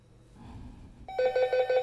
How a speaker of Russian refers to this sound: О, уже звонят. Я же на рабочем месте нахожусь. Так, ответим.